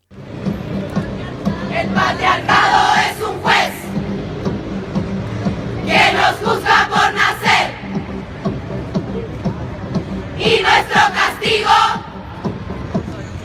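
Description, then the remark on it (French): A large flash mob crowd chants a Spanish-language protest chant about patriarchy and violence in unison, loud rhythmic bursts of many voices rising and falling in three surges, with steady crowd noise filling the gaps between them. “On parlait du, flash mob tout à l'heure. On, est nombreux justement à avoir entendu des extraits.”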